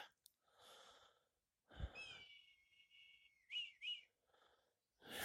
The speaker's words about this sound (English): I'm at the foot of a, a mountain called Craig y Frân, in Welsh, Raven Crag, preparing to meditate. I don't know if you can hear the cry of the red kites on this recording, but they're just above my head.